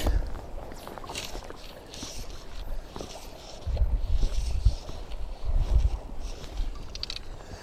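Wind buffets the recorder outdoors while someone is fishing and casting, a steady rushing noise broken by louder low rumbling gusts in the second half, with faint water-like hiss in the background and no talking.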